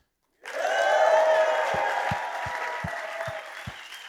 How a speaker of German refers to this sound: Macht ein bisschen Lärm für unsere Locations und für alle Podcast-Zuhörer.